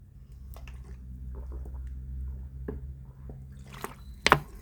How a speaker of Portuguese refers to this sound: Deixa eu até me hidratar aqui. Se hidratem também. Dê um golão d'água aí.